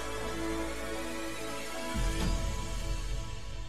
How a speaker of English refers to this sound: Since it is not consciously perceived, it can make people feel vaguely that supernatural events are taking place. Such tones cease being heard as a musical tone unless they are boosted greatly in volume.